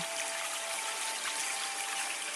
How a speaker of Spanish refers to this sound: Y así como escuchaste durante toda esta meditación el agua